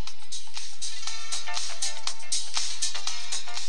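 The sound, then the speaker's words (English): A bright electronic cell phone ringtone plays a quick, repeating melody of short tonal bursts. It is fairly loud, with no voices over it. “Isn't it amazing what a cell phone can do?”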